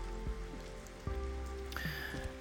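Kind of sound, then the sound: nature, rain falling outside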